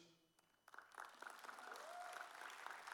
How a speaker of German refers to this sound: Lasst uns einen Applaus geben.